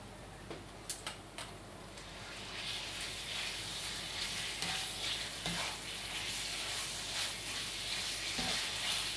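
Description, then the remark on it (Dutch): Steady sizzling of leek frying in a pan, a dense hiss that swells after a couple of seconds, with a few sharp clicks and taps of utensils near the start and no talking. “Je hoort wel sissen, hè?”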